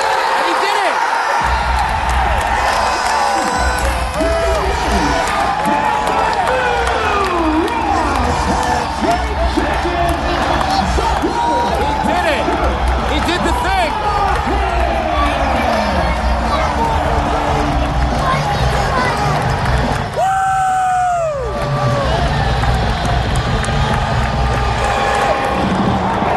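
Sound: wrestling arena crowd cheering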